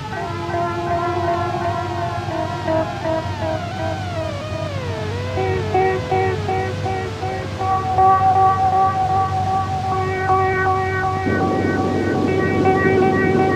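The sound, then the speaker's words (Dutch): Howling, cold storm wind on an open heath, with wavering, siren-like whistling tones over a steady rushing roar, echoing and continuous throughout, fairly loud, with no voices. “Dit is nog steeds storm. Daar zitten ze. Op de hei. Storm. Koud.”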